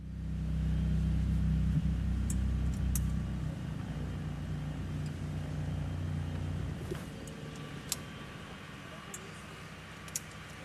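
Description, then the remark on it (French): A boat engine is started to position the boat for entering a canal lock, running with a loud, steady low drone for the first few seconds, then settling into a softer rumbling idle, with a few sharp clicks and knocks over it. “Mais non, c'est le signal que nous attendions pour allumer le moteur et nous positionner.”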